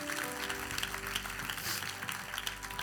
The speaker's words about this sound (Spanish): Si le dan un fuerte aplauso, de lo bien fuerte.